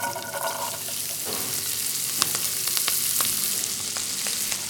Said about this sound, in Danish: Og de, dem smider bare på en pande med, med olie? Ja, dem smider vi lige på først, så får de lige lov til at stege lidt igennem i hvert fald 3 minutter, før vi får bladbedet bladene på.